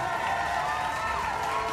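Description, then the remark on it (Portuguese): A dense, steady wash of applause from a crowd applauding a performance, clapping fast and continuously at an even loudness throughout, with a faint murmur of voices mixed in. “Ela diz orgulhosa, pronta para os aplausos que inevitavelmente recebe em seguida.”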